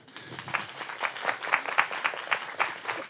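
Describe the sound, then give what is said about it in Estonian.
An audience applauds the volunteers steadily, many hands clapping together in a dense, even patter at moderate volume, with no voices rising above it. “aitäh aitäh, ma ei tea, ma arvan, et vabatahtlikud olid ka aplausi väärt.”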